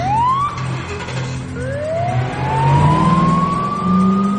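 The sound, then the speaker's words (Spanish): A police car siren wails in long rising sweeps over the low rumble of its engine as the car moves past along a street, loud, with no voices present. “Las sirenas del coche iluminan la calle a su paso.”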